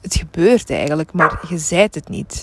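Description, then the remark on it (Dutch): A puppy named Olly yaps a few short times in the background while a person keeps talking over it, the barks quieter than the voice. “Dus sorry voor het geblaf.”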